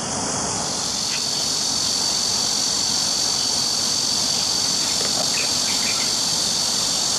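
A dense chorus of cicadas buzzes steadily and loudly, a continuous high-pitched drone that never pauses, with a few faint chirps flickering above it and no voices.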